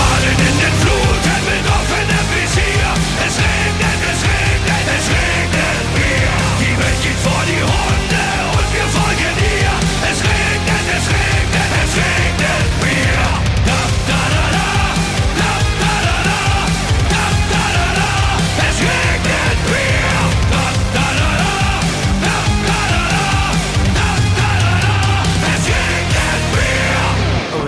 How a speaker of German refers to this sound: Wir machen ein kurzes Break, spielen einen, einen kleinen Song von ….